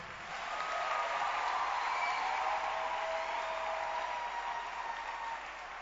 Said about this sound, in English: Don't stop clapping. Because our mommy just walked in.